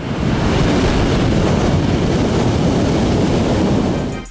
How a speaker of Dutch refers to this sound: Ehm, ik had doodleuk op het strand een paar dingen opgenomen, maar het, ja, de wind was eh, net iets te krachtig, dus eh, helaas eh, gaan we met jullie oren besparen.